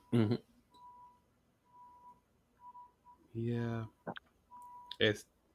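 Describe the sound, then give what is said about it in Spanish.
A faint, steady electronic beep repeats several times from a UPS delivery truck reversing outside, beneath louder bursts of conversation. “Ese, ese truck de UPS que no para ni con la pandemia.”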